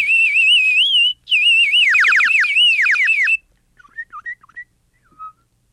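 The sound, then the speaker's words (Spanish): Birds singing in a garden: loud, bright warbling whistles with quick descending trills for about three seconds, followed by a few soft, scattered chirps. No one speaks. “exclamó la cebollita, que ya no era una cebollita se encontraba en un hermoso jardín y los pájaros la saludaron cantando.”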